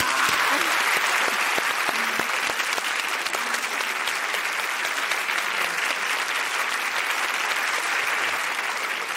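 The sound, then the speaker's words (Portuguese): Steady audience applause fills the whole stretch, a dense wash of many hands clapping at an even loudness without pause or build, no voices standing out above it. “Vamos aplaudir, parceiro.”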